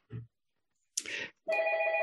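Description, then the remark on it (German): A dull thump and a brief rustle are followed by a telephone beginning to ring, a steady, fairly loud electronic tone that sustains until the end, with no one speaking. “Oh, ich muss mal das Telefon ausschalten, das geht ja überhaupt nicht.”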